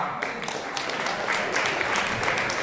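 An audience applauds as a musician and composer is introduced, many hands clapping at once into a dense, crackling wash of sound that holds at an even, fairly loud level throughout, with no voices rising above it.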